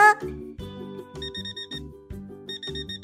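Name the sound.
alarm clock ringing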